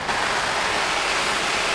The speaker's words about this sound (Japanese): ちょっと実験してみましたのでちょっとビニール傘と比べてみましたちょっと音声お聞きくださいまず最初に普通のビニール傘にシャワーを当ててみます